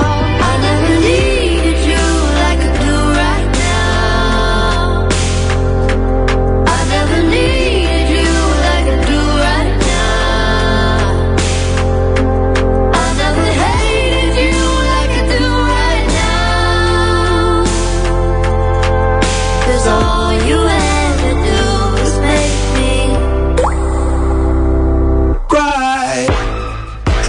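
A pop song plays loud and steady throughout, with a full backing of bass, beat and melodic vocals, dipping briefly near the end with no one talking over it.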